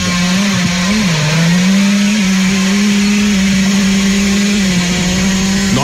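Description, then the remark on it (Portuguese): A person imitates a two-stroke motorcycle engine with their mouth: a loud, buzzy, unbroken drone held for about six seconds, the pitch dipping briefly near the start and again near the end. “Ele vai imitar com a boca.”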